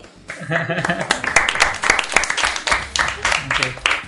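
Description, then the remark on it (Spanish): A burst of audience applause for the show's technical producer, dense, steady clapping lasting about four seconds, with a few voices calling out underneath near the start. “Y un aplauso”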